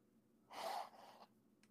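A single close-up sneeze: a sudden, forceful burst of breathy noise that trails off into a softer exhale, with no talking around it.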